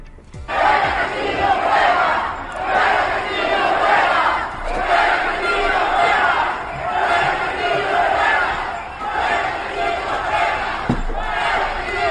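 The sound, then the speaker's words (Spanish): A large protest crowd in the streets of Peru, at a mass demonstration against the government of Pedro Castillo, chants slogans in unison, voices rising and falling in a steady rhythmic cadence, loud and sustained throughout, with a few sharp knocks or bangs near the end. “El gobierno de Pedro Castillo decidió un eh, estado de sitio para que las movilizaciones de marzo frenaran y allí tenemos entonces los sonidos de la realidad que llegan desde el Perú.”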